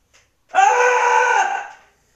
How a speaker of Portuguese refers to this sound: desestressei, cara. Preciso gritar. Daqui a pouco minha mãe sobe aqui achando que eu me matei. Mas é só estresse.